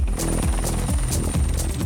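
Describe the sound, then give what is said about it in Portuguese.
A loud helicopter of the Paraguayan and Brazilian security forces' anti-drug operation, based at a farm near the border, with steady rhythmic rotor thumping, roughly two beats per second, over a deep engine rumble and a thin high turbine whine. No one speaks. “Esta fazenda, perto da fronteira, é a base da operação das Forças de Segurança do Paraguai e Brasil, que participa com helicópteros.”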